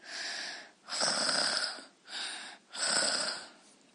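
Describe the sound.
Loud, raspy snoring in four rough breaths that alternate between shorter and longer pulls, with brief pauses between them and no talking.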